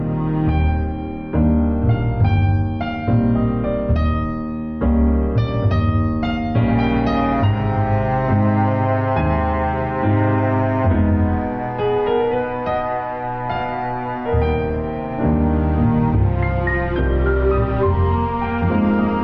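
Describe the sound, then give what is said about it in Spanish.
Piano music plays steadily at moderate volume, with a swaying, waltz-like lilt over a calm, sustained bass line. No one speaks. “El piano ahora se abre en una cadencia que roza el vals, mientras un bajo eterno y tranquilo lo arropa.”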